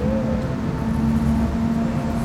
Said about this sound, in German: Fahrgeräusche.